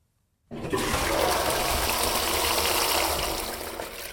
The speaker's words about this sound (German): Es tönt wie bei einem herkömmlichen WC. Es ist aber eine Trenntoilette.